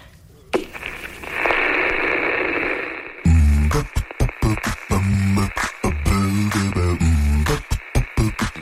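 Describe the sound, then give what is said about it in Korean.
Loud radio static hisses for a few seconds, then the dial locks onto a station and a choppy, broken broadcast signal bursts through in stuttering fragments. “어, 그 약간 주파수 맞히는 지지 소리가 빛 방울 떨어지는 소리랑 비슷하네요.”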